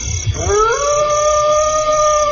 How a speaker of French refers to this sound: Et ces animaux, ces animaux qui hurlent, mais c'est vrai, mais...